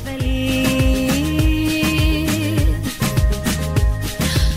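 A charity pop song released in 2017 to raise funds against breast cancer plays loud, with a steady thumping beat, sustained melodic tones and bright shimmering highs running continuously throughout.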